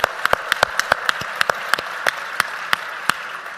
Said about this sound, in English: 15 minutes. All right. Pencils down. That means stop. And please give yourselves a big round of applause. Well done. Well done, everyone.